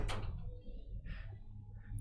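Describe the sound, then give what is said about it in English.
A door opens with a brief, sharp rush of noise at the start, then soft scraping and shuffling over a steady low rumble that swells slightly in loudness. “Ooh, that gets a lot louder when he opens the door.”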